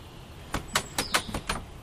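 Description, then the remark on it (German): The handle of a locked door is rattled several times in quick succession, six sharp metallic clacks in an uneven rhythm as the door stays shut, with no talking. “Ist auch abgeschlossen.”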